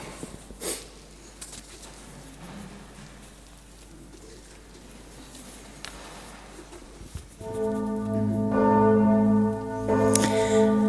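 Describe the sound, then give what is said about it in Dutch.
A church tower bell strikes loudly as the church service ends, signalling that people may go home, with deep, ringing tones and long humming overtones, following a stretch of soft pattering like light rain. “De klok van de kerktoren slaat weer.”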